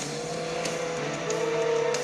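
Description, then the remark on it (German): A video game car engine drones steadily, and a high tire squeal rises over it in the second half as the car is driven through a corner. No one speaks. “Weil mit Auto kann man halt, wenn man so die quietschenden Reifen so macht, kann man so richtig nice Kurven fahren.”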